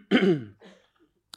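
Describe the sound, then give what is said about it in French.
Someone clears their throat once, a loud, rough burst followed by a softer trailing rasp, then quiet and a brief click at the end. No talking. “pardon pour le chat.”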